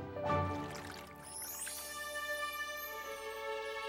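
household object, water being poured

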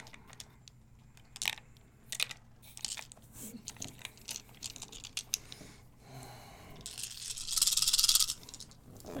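household object, dice being rolled

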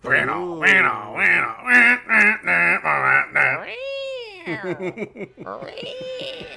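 animal, cat meowing

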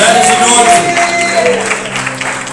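crowd, audience clapping

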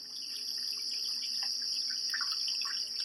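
nature, rain

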